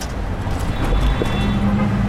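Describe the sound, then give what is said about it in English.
Steady street traffic rumbles at the corner of 16th and Valencia on a Friday night as the last commuters come up from the BART station, a low engine drone with a sustained revving note rising partway through, no voices, just continuous road noise. “Traffic on the street sounds frustrated, revving, waiting, and beeping as the last of the commuters surface from the BART station and breeze by.”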